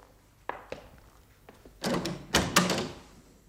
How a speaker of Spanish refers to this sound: cierra esa puerta.